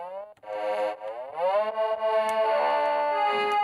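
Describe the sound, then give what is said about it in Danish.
A thin, buzzy electronic violin tone meant to imitate a toy violin, with its speed turned up so it sounds brighter, plays with no pauses, its pitch sliding upward partway through and then holding steady, loud with no voices. “Nu kan man godt høre, at den, den skulle forestille en, en, en legetøjsviolin.”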